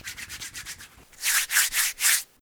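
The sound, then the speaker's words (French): Wet rubbing and smearing of vaseline: a run of quick, light strokes, then four slower, louder smears, each a broad hissing swish with short gaps between. “Beurrage de rondelle.”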